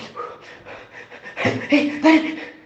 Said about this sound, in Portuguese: Então, tem dois tipos de ventilação, de, de respiração. Tem essa que é a torácica, que você vai dar aquela respiração rápida.